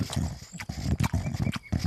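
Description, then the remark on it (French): A person imitates a stag with their mouth as a sound effect, set in a forest in Dordogne, producing a rapid series of loud, breathy, throaty grunts and snorts in an uneven rhythm, like an animal huffing air. “Un cerf est en train de se péter le bide avec de l'air.”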